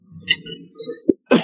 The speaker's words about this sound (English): Excuse me. Hmm. Bless you, bless you.